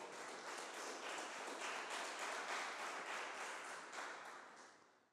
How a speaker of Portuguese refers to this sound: Deus tem algo novo conosco, e se você crer nisso, aplauda o Senhor bem alto.